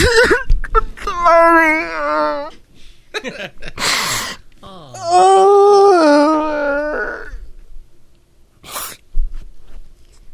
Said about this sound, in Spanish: Llorando, llorando.